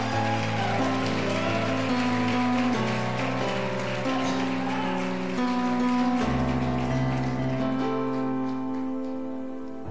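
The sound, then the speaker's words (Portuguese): A crowd claps steadily in a dense, continuous patter, applauding God during a sermon, with sustained keyboard chords and a low bass line playing underneath for the whole stretch. “Você pode aplaudir esse Deus.”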